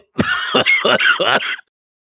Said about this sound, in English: and he starts coughing a little bit, but um, he calms down.